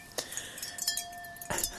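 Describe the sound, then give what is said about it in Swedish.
Glasses clink together a few times in a toast, bright ringing taps with a sustained tone hanging between them, the last strike louder and longer. “Ska jag skåla med mig själv också? Varför inte? Okej. Ja, skål då.”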